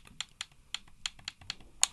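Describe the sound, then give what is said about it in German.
A game controller's D-pad clicks loudly and sharply about eight times in quick, uneven succession, crisp, with no voices over a quiet background. “Also meine, das D-Pad klickt laut.”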